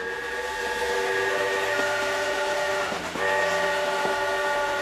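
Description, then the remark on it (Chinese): A train rumbles along while its whistle blows a steady, multi-toned chord almost throughout, breaking off briefly and then sounding again. Loud and continuous, with no voices. “一百二十年前，李鸿章是坐着火车来到弗里迪斯库庄园的。”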